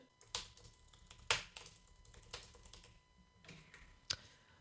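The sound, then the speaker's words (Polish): Soft, irregular key presses on a quiet computer keyboard moved right up to the microphone to demonstrate how loud its keys are: a handful of muted clicks spread over a few seconds, with a couple slightly sharper taps standing out; no talking. “Jeszcze zaprezentuję, a właściwie spróbuję przynajmniej zaprezentować głośność wciskania klawiszy.”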